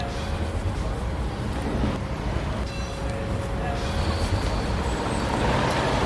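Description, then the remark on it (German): Steady, rumbling heavy-vehicle traffic fills the scene, with deep engine drone and brief hissing, squealing bursts like truck air brakes; a continuous busy outdoor din with no clear talk. The noise comes from construction work with large equipment and extra traffic at a large scaffolded residential building being renovated in Aarau, Switzerland. “Man hört darum während allen Aufnahmen von deren Episode, da wird geschafft, mit grossen Grad und mit viel zusätzlichem Verkehr.”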